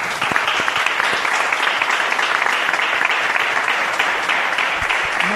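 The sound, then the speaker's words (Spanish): Audience applause fills the whole stretch, a dense, steady wash of many hands clapping at an even loudness, with no voices rising above it. “¿Le damos un aplauso?”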